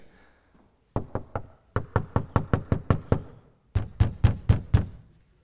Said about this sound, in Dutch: Nee, eerst krijg je even dat ze klopt op de deur, hè, want ze hadden de deur gesloten.